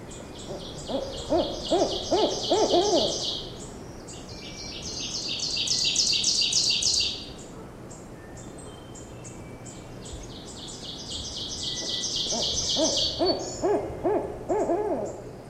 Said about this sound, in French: ce qu'on entend ululer, c'était une chouette rayée.